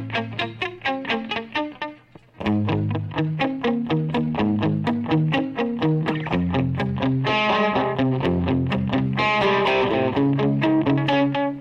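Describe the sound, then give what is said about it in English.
Electric guitar with a tempo-synced delay: a few plucked notes decay at first, then a steady, rhythmic cascade of repeating echoed notes builds into a dense, continuous wash. No one speaks. “if you're using delays and your drummer goes off, your delay is you sound off”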